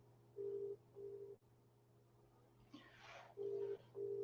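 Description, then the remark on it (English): A WhatsApp video call ringing tone from a phone repeats in short, steady electronic beeps, paired bursts separated by pauses, over a low constant hum, with a brief breathy rustle in the middle. “I am not so stressed now because he's got a phone, I've got a phone, and so now we're going to do a video, a WhatsApp video call.”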